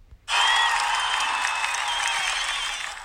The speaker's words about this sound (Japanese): イエーイこれないですか拍手とかないの効果音で拍手わーみたいなないの